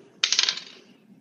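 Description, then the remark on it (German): A die is rolled across a tabletop and lands on two, a sharp first hit followed by a quick run of four or five bright rattling bounces that settle within half a second. No voices. “Okay, ich würfle mal.”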